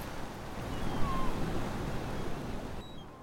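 Ocean waves wash in a steady, continuous roar of surf, even in loudness, with no voices, fading slightly near the end.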